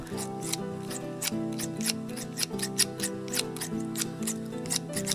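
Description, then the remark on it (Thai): Large shears snip quickly and repeatedly, cutting heavy, soft wool off a sheep whose legs are tied as it lies on grass, a crisp steady chopping of about two or three cuts per second, clear over a soft sustained musical background. “จากนั้นเจ้าของก็หยิบกรรไกรอันใหญ่ เดินเข้ามาตัดขนแกะที่หนักและนุ่ม”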